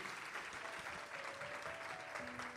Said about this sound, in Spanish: Si tú lo crees, dale un aplauso fuerte al Señor. Come on, somebody.